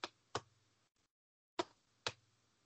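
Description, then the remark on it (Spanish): Two pairs of sharp, thumping beats of a fetal heartbeat, each a quick double pulse, separated by a short silent gap. A faint low hum sits underneath, and no one speaks. “a mí me daba la sensación de que como que percibe el latido de...”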